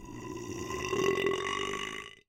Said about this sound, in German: Und, ziemlich lässig, Dünen können sogar rülpsen. Wenn sich eine Sandlawine beim Rutschen kräuselt und die Körnchen dabei immer wieder aufeinander prallen, ähneln die Schallwellen, die dabei entstehen, einem Rülpsgeräusch.